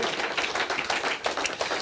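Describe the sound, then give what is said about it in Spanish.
A crowd applauds steadily, giving applause to God, with many hands clapping in a dense, continuous patter at moderate volume for the whole stretch. No one speaks. “Dale un aplauso a Dios, amén.”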